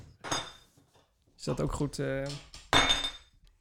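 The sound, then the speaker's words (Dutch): Bright metallic clinks and jingles from the Running Stories medal for the Virtual 5K being handled, a few sharp chimes ringing out between short bits of speech. “wat je daar hoorde is de Running Stories medaille voor de Virtual 5K.”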